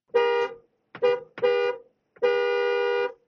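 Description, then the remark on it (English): A Tesla Model Y car horn honks four times in an uneven pattern during a horn test: a short beep, two quick ones close together, then a longer held blast, loud with no talking. “Well, Okay, okay, we start out with the beep test.”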